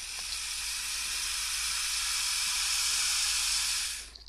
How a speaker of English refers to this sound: With that sound, uh, you regurgitate water onto the building, steam rising up into the night